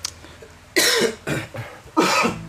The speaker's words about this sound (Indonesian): Oh, lagi batuk ya. lagi batuk. Kita berdua lagi batuk.